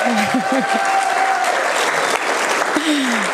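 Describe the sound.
Steady audience applause, a dense wash of many hands clapping at an even loudness throughout, with a few brief voiced tones and cheers rising over it.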